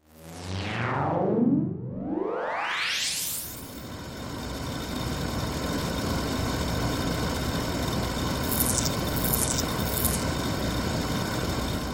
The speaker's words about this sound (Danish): Ui, der er godt nok meget larm herinde, og en masse tandhjul, der drejer rundt. Ja, udenfor blæser det meget, og derfor drejer vingerne rundt med høj fart.